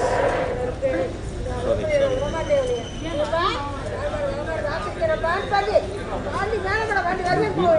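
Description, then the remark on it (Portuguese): A woman in a trance at a temple, in front of an altar to Munishvara, the temple's guardian, shouts and wails in a rising, chant-like way, saying she will not leave you alone, over a busy crowd murmur, steady and fairly loud throughout, with other people talking in the background. “Vocês estão ouvindo a voz da mulher gritando?”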